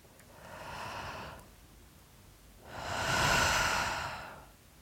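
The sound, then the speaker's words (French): An airy deep breath is drawn in, swelling the belly, and after a short pause a longer, louder, slow exhale follows through the mouth, slowly swelling and fading away, as a breathing exercise. No one speaks. “Reprends ta respiration et recommence une deuxième fois.”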